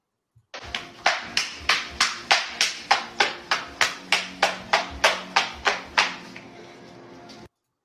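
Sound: round of applause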